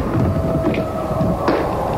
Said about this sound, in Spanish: ¿Y cómo? Hay truenos también.